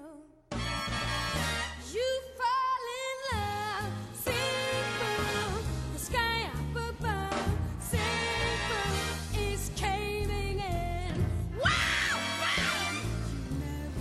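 A pop song plays loudly throughout, with strong, wavering sung vocals that rise into near-shouted peaks over a steady bass line and full instrumental backing; no one speaks.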